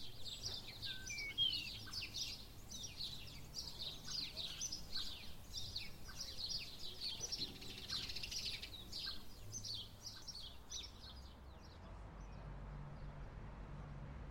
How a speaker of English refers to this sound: Oh, the singing hedge. That's what we called it because it was always packed with sparrows. They're a very sociable bird, so they sit all day chirping and chirping and chirping.